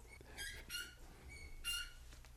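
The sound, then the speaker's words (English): A golden retriever gives three short, high-pitched squeaky whimpers in quick succession, faint, over a low background hum with no talking. “you hear heavy breathing or tiny little squeaks in the background, that's Frodo the Golden Retriever trying to get my attention”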